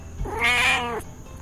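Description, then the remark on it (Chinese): A single drawn-out meow from a cat named Xiaoyu (小玉) held in someone's arms, rising and then falling in pitch with a bright, slightly whiny tone, lasting under a second with no talking around it. “只是这位少主根本没有被感动到啊，还一副有那么严重吗的表情，又抱起了猫咪，笑着对小玉说”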